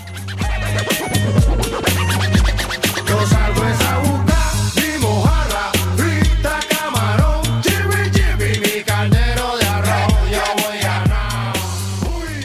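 A song plays continuously and fairly loud in the background of a radio programme, driven by a repeating deep bassline and punchy beats, with scratchy turntable-like accents layered over the music and no talking.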